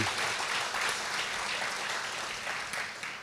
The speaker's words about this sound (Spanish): Un aplauso al Señor.